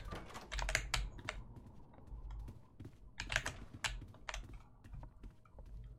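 Loud computer keyboard clicking, a steady flurry of sharp keystrokes in bursts with brief pauses, with a low background hum and no talking.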